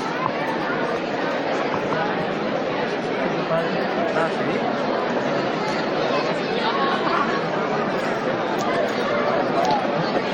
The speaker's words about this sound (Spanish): Se podía escuchar el murmullo que no cesa en, en la calle, aunque seguramente en breve sonarán esas peticiones de, silencio cuando el paso que se detiene justamente ahora mismo antes de, afrontar el primero de los escalones de, la parte interna de,